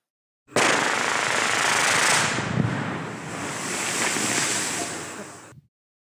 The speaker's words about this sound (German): Das waren Sprengungen durch massives Gestein, die wir brauchen, um in dem harten Untergrund Kabel zu verlegen.